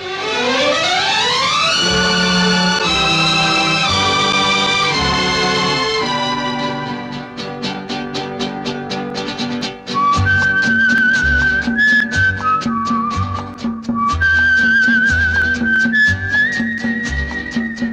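A Hindi film song intro: swelling, sweeping orchestral chords give way to a steady rhythmic beat, over which a clear, high whistled melody rises and falls in stepped phrases.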